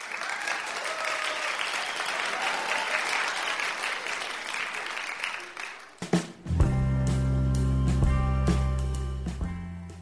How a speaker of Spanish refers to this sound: sin duda este, eh, me parece que el aplauso es para, para mucho más gente de la que, de la que hemos podido ir eh, mencionando en estos días.